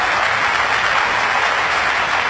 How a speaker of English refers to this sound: And the crowd goes wild.